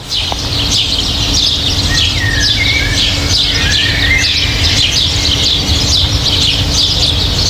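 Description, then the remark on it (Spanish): Outdoor ambience of the Botanical Garden in Furnes, filled with many small birds chirping and twittering continuously, a dense layered chorus over a low steady background rumble, with no voices. “Este es el sonido del Jardín Botánico.”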